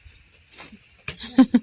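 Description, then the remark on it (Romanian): Rain patters down in a few irregular, splashy bursts, with heavy drops striking a surface over a faint steady hiss. “ce plouă.”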